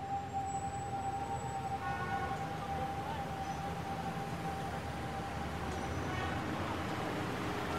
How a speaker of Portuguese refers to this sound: Esse aqui era o ponto de um ônibus onde eu ficava toda noite, tarde da noite, esperando a condução para voltar para casa.